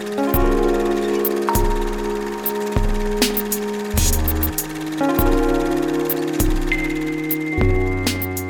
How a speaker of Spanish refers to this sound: Vamos con la cortinilla y continuamos aquí en Ruido de Fondo.